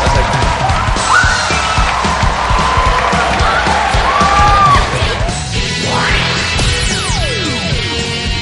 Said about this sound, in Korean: 오늘 또 패널분들 계시니까 패널분들 모시겠습니다. 박수로 환영해 주십시오.